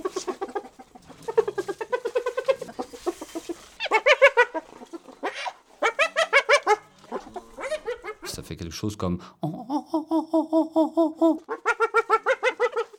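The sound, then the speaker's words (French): A spotted hyena's giggling laugh in several rapid bursts of high, nasal, evenly repeated notes, the pattern of a dominant animal. A man speaks briefly at the start. “Le rire de la hyène”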